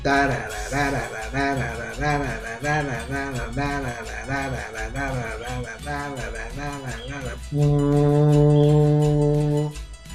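A tuba plays an eerie Halloween horror-movie theme, a quick repeating run of low, bouncing notes, ending on one loud, long sustained blast. Clear, with no talking over it.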